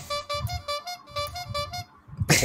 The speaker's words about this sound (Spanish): cuidado, cuidado con la, con la bocina, que, que te emocionas con la bocina.